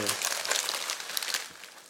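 Crisp paper crinkling and rustling as a small letter taken from a parcel is unfolded, a dense run of bright, crackly rustles lasting about two seconds, fairly steady in loudness and tapering slightly at the end.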